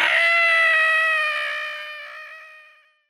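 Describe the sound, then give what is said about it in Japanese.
A person voicing a long-legged calico cat in a story imitates the cat's screeching yowl as it is knocked flying into the sky, one long, loud, strained cry that holds steady and then slowly fades out over about three seconds. “悪い猫が宇宙まで飛んでったぜ”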